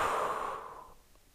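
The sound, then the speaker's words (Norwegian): A slow, breathy exhale through the mouth after holding the breath, part of a guided breathing exercise, soft, a steady airy rush that gradually fades out over about a second, with no talking. “Og pust ut.”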